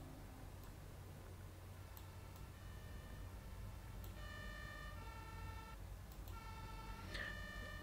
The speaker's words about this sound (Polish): słyszycie wszyscy troje, że naprawdę bardzo wiele syren policyjnych, strażackich, może jakichś innych, ale słyszycie w tej części, z której przyjechaliście, czyli po przeciwnej stronie, ale to jest harmider, który niesie się